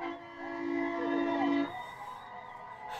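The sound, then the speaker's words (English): Loud air horns from many trucks blare in a long, sustained chord for over a second, several tones overlapping, then drop away into a steady roar of traffic noise. “it's a lot of trucks. A lot of MAGA. Noise pollution.”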